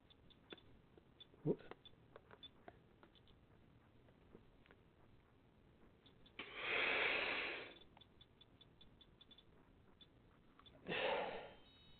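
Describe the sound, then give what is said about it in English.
Two quick, forceful inhalations through an inhaler trainer, taken too fast, a loud airy rush lasting over a second and then a shorter one, with faint clicks and handling sounds between them and no talking. “So let's see if I can get it where I can coordinate, but I'm still breathing too fast.”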